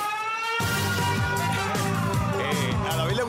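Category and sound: signal or alarm, alarm siren sound effect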